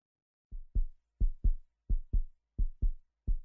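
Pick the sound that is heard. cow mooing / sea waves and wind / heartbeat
heartbeat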